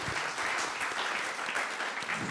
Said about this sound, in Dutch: Hier in ieder geval een applaus voor jouw ongelofelijke doorzettingsvermogen.